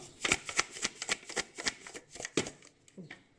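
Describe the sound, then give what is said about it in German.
A packet of instant mashed potatoes with meatballs, holding small seasoning sachets, is shaken briskly for about three seconds, its dry contents rustling and rattling in quick, irregular bursts. “Papa hat die nächste Hörprobe. Genau, ich schüttel mal.”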